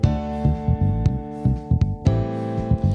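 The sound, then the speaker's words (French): A repetitive dance music beat pulses at a steady 120 BPM, with heavy, even kick thumps under sustained, humming synth tones. It is loud, with no voices. “Comme je suis à la radio, je regarde l'horloge, le beat est bien à 120, hein.”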